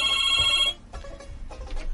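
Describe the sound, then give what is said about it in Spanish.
A telephone rings with an incoming call: a bright, steady electronic ring of layered high tones that cuts off after under a second, followed by soft muffled clatter and rustling. “vamos a ver quién nos llama, espérate”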